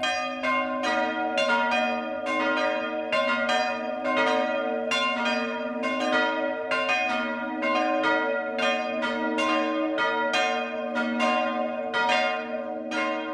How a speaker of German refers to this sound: Bayern 1 präsentiert das 12 Uhr Läuten. Es ist 12 Uhr. Das Mittagsläuten kommt heute aus Medlitz im Landkreis Bamberg.